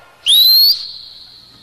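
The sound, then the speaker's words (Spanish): A single loud, sharp human whistle, made by a young man on a street corner to call his girlfriend, rises quickly to a high steady tone, holds for about half a second, then fades with a trailing echo. No one speaks. “Ahora estos desgraciados, ¿cómo llaman a su germa? Punte silbo. El otro de la esquina, como huevón, parece pájaro.”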